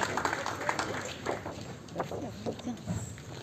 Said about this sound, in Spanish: Muy bien, gracias a los voluntarios, le damos un aplauso, terminamos. Gracias. Gracias. gracias.